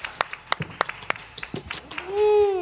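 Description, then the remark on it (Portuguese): Scattered, uneven clapping from a small audience applauding the technical crew of Ponto de Encontro at Porto Alegre em Cena: sharp separate claps rather than a dense roar, then a loud sustained whoop or whistle-like cheer rises and falls over the last half-second. “Então você que está assistindo e a nossa turma toda que está aqui, agora eu quero pedir palmas para nossa técnica maravilhosa do ponto de encontro por esses 13 dias.”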